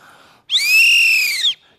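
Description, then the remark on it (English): A single loud, shrill whistle blast lasting about a second, steady and piercing with a slight warble, sounding clear against near silence. “you should get the whistle blown at you every single time you violate them.”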